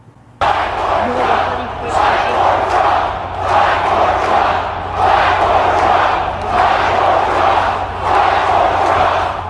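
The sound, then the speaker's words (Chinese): A large crowd at a Donald Trump rally in Georgia, USA, chants 'Fight for Trump' and cheers loudly in a steady rhythm, voices swelling in repeated bursts roughly every second or so after an abrupt start, with no single speaker standing out. “此次在乔治亚州的集会，民众们欢呼的口号已经从 Four More Years 再干四年，变成了 Fight for Trump 为川普而战。”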